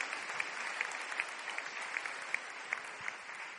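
An audience applauds to the Lord for the life of their pastor, clapping steadily in dense overlapping applause with crisp sharp claps standing out in a fairly even rhythm throughout, moderately loud and sustained with no clear talking.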